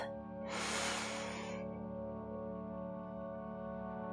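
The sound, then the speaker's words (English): A single deep, airy inhale lasting about a second rises over a soft, steady musical drone, which continues on its own after the breath fades. “Close your eyes and quiet your mind take a long, deep breath.”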